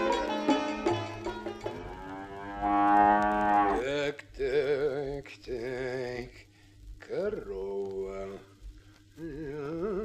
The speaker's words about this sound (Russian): сколько, ты говоришь, она дает молока, эта корова? Три кувшина в день, господин староста. Очень хорошее молоко.